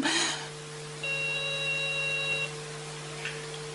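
A telephone rings once with a steady electronic tone lasting about a second and a half, preceded by a brief rustling burst and followed by a faint click as it is answered, with no voices.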